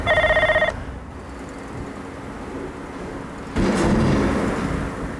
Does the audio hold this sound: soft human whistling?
no